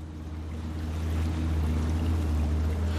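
A boat's engine drones steadily at close range over rushing, splashing water, the sound swelling slightly louder as it goes. No one speaks.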